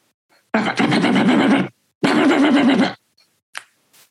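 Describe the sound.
A voice imitates gunfire heard early one morning, with two loud, raspy rattling bursts, each lasting about a second and separated by a short pause, followed by a couple of faint clicks.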